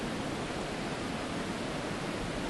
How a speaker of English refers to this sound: And just like this river is going to slam into a diversion dam about 3k further downstream,